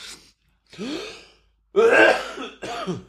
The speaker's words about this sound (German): ist gerade vor lauter Husten die Membrane gerissen. Das war ein …. gerade auf seinem Monitor äh, gehustet in seinem Raumschiff.